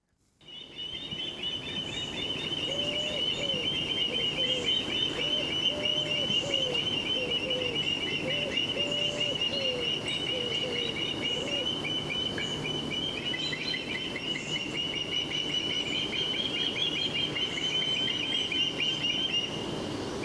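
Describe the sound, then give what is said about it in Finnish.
Ospreys on their way to Africa call repeatedly, heard from the end of a forest road by a lake, in a steady outdoor chorus of sharp whistled chirps layered over a continuous bed of other birdsong, moderately loud and sustained throughout with no voices. “Mutta tämä on niin kuin metsäautotien päästä ja kalasääsket, jotka on tällä hetkellä matkalla kohti Afrikkaa, niin huutelee.”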